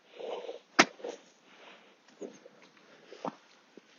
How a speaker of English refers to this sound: He has a dog that looks like a large uh, prehistoric mammal of some kind, maybe an anteater sort of thing long snout. Oh, no, it's a dog. It's a dog.